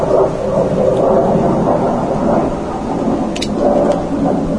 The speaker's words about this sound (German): Achso, bezüglich der Nebengeräusche, ähm, das ist gerade irgendein Jet, der Pullach überwacht. Nee, das ist der Jet, der auf, von der Schafskälte in den Süden fliegt.